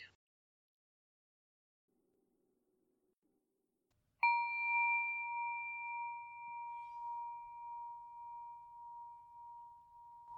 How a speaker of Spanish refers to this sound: Al finalizar la meditación, voy a tocar el gong y a dejar tres minutos de silencio, después de los cuales voy a volver a tocar el gong y terminar el audio.